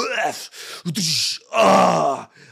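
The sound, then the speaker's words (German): A voice imitates a bodybuilder's strained groaning while lifting weights in a gym, a few short effortful grunts building into a long, loud, drawn-out groan, with no words. “und diese dummen scheiß Bodybuilder-Typen, die dann immer so schreien und das Gewicht knallt irgendwo.”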